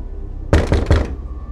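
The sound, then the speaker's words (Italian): Three firm, evenly spaced knocks by police officers on varnished wooden apartment door 1109 in an eleventh-floor corridor, fairly loud, followed by quiet room tone. “Arrivati nel corridoio, in silenzio sollevano le armi camminando lentamente verso l'appartamento arrivano di fronte alla porta 1109. Bussano.”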